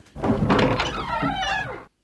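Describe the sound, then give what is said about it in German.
A door thuds open with a heavy knock as someone arrives at the door, followed by a rumbling, slightly creaking movement for about two seconds before it stops abruptly. “Oh, da ist jemand an der Tür.”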